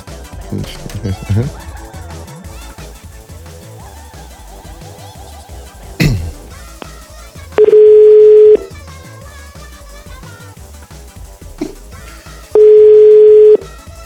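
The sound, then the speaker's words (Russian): A telephone ringback tone sounds twice while an outgoing call is placed, each a steady one-second beep separated by a few seconds of waiting, clear and loud over a busy, murmuring background. “Сейчас я ей, кстати, звоню.”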